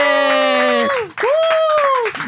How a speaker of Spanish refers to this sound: Bueno, hola, hola. ¿Qué tal? Sean todos bienvenidos a un nuevo capítulo de Tirando la Talla Fuerte. Aplauso en el estudio.